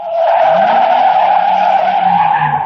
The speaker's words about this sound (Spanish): La unidad móvil de Onda Cero transita por la carretera Camino de Siches